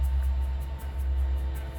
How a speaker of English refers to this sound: The freeway behind us breathes with activity. A man in a white truck pulls by.